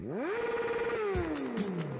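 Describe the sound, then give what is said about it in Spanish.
A Suzuki motorcycle, presented as the motorcycle of the week, revs up quickly, holds a steady loud whine, then winds down gradually, heard alone with no one talking. “Suzuki Motors Way of Life presenta la moto de la semana.”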